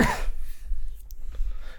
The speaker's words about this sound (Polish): Nikt mi kurwa na zdrowie nie powie, serio? Aż tak się nie lubimy w tych partiach?